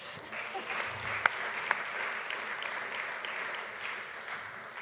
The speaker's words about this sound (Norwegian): Kan vi ikke starte med å gi denne fantastiske gjengen her en applaus?